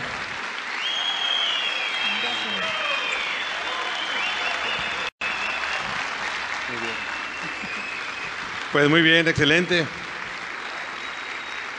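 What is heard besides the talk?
audience applause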